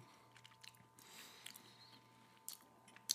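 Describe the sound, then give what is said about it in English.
Quiet chewing of a cookie with a thick caramel middle: soft irregular mouth clicks and faint crunches spread across a few seconds, with a sharper bite near the end and no talking. “Oh, it's like chewing caramel. The middle is very thick. My teeth weren't ready.”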